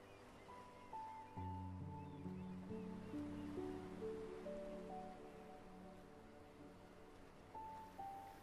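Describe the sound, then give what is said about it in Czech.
Soft ocean surf washes steadily in the background beneath slow, sustained musical tones, a continuous gentle rush with no distinct crashes and no voices. “nech se ukolébat mořskými vlnami”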